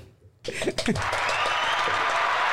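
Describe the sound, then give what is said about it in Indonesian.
A burst of applause starts abruptly after a short quiet moment and continues as a dense, steady wash of clapping. A brief vocal sound rises over it at the start. “Kayak tepuk tangan sih, Rek.”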